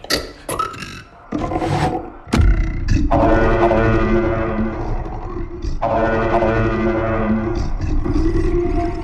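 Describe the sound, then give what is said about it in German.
Guttural, growling alien creature noises from a horror film, with wet, belching roars, sustained and loud, broken by brief pauses and sharp clicks, with no speech. “Ansonsten gibt es nur Schreien, Stöhnen, Keuchen und die Geräusche der Aliens.”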